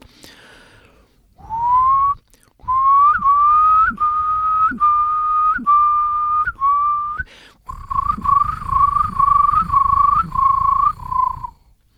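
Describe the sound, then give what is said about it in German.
A person whistles an imitation of a curlew's song: a rising whistle that swells into a long run of bubbling, trilled notes around one pitch, loud, with no talking. “Und nehmen wir mal den Brachvogel, kommt heute noch in meinem Hausnaturschutzgebiet vor. Auch Fluggesänge sind keine Singvögel, aber haben wunderschöne Gesänge.”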